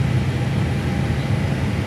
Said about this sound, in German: Wieder 30 Sekunden Motoring, jetzt kommt Sprit dazu, wird gezündet, jetzt läuft der Motor langsam hoch.